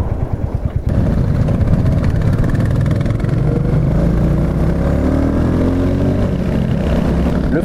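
A 350 motorcycle engine runs steadily throughout, a low rhythmic thrum with rising and falling pitch as the bike is ridden, mixed with wind rush.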